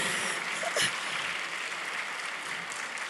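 An audience applauds steadily, a dense wash of many hands clapping at once with an even, sustained loudness throughout. No one speaks over it.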